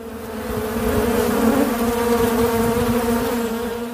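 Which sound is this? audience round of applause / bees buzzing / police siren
bees buzzing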